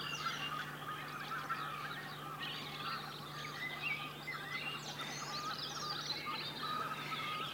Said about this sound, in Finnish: Ja hanhet tietysti taustalla. Kovaa porinaa pitää siellä valkoposkihanneet ja tunrahani kuuluu sieltä välillä. Niin miten ne hanhet erottikaan? Valkoposkihan on se niin se on haukahteleva. Joo, vähän haukahtelevaa tuommoista tasasta porinaa